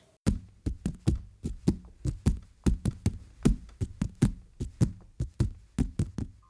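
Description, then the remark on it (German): A band, plays vegetables as percussion instruments: a steady, rhythmic run of hollow knocks and taps with a low, woody resonance, fairly loud, with no voices. “…, auch unter dem Namen … bekannt, benutzt Gemüsesorten als Klangkörper. Und das hört sich dann so an.”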